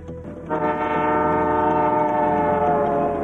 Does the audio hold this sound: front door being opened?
no